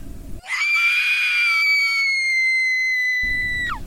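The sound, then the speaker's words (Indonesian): A woman lets out one long, shrill, hysterical scream, loud, holding a piercing pitch for about three seconds before it breaks downward at the end. “Dia sering terlihat bengong, lalu tiba-tiba teriak histeris.”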